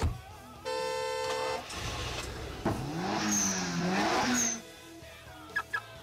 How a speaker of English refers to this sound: It's, it's a car screeching. Oh my god, it sounds like a buzz saw. Sounds like a chainsaw. That's not car screeching, man.